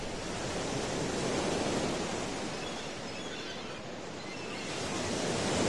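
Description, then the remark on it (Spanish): A steady, broad wash of surf rolls on without pause, swelling gently and easing back, like waves breaking continuously along a shore with no voices present. “Vamos a caminar nuevamente al mar.”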